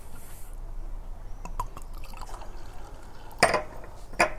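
De Zatte beer, an 8% tripel, pours into a glass in a steady, soft fizzing stream, with a couple of brief sharper clinks or splashes near the end. No one speaks.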